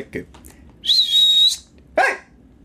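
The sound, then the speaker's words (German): A person gives one steady, fairly loud whistle lasting under a second to get attention, followed by a short, sharp burst of sound, with quiet background otherwise. “Okay, ohne zu pfeifen, das Hey habe ich letztes Mal auch gebraucht.”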